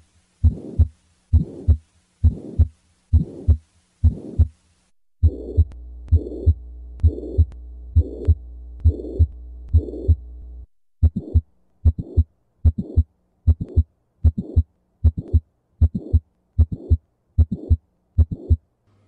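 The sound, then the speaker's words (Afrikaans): A steady, regular heartbeat with paired lub-dub thuds, and a soft whooshing systolic heart murmur, during the heart's contraction, filling the gap between the first and second heart sounds of each beat, with a low hum underneath in the middle section. “Ja, so tipies tussen die eerste en die tweede hartklank wat ons noem systolie of samentrekking van die hart, gaan ons 'n sistoliese geruis kry.”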